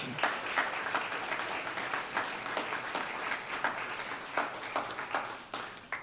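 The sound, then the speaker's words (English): Sustained audience applause for a man's courage, in a room, a dense patter of many hands clapping at an even level throughout, with a few sharper claps standing out. “For those who are joining us at home, maybe you can, you can join us as we just give him a round of applause for his courage.”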